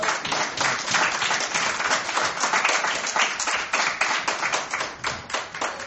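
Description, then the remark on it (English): A crowd breaks into sustained applause, many hands clapping densely and steadily at a fairly loud level for several seconds with no talking over it. “God, uh, give God a round of applause.”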